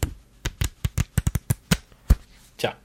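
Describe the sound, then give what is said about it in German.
A pile of letters and post left lying unanswered is shuffled and handled, with a quick irregular run of crisp papery slaps and rustles, about a dozen, fairly loud, ending in a softer rustle. “Das ist die Post, die hier noch liegt”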